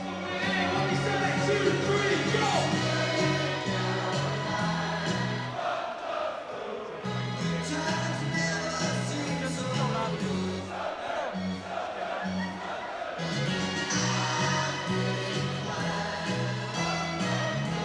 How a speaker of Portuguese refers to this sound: Conseguimos chegar em um bar onde está a torcida do Arsenal comemorando essa vitória.